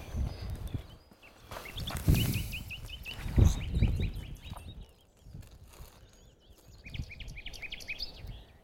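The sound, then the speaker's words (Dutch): A common nightingale sings outdoors in bursts of rapid, repeated trilling phrases, while low thumping and rustling noises sound in the foreground. “de nachtegaal.”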